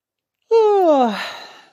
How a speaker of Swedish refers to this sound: Ja, det var en gäsp. Jag är jättetrött jag lär mig en massa, massa nya saker nu.